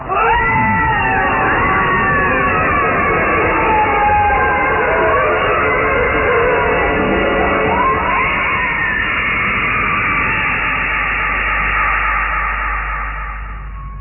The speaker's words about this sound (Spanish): Y todos, todos escucharon perfectamente los gritos de muerte del conde Bartok y Jessica que desaparecían entre las llamas.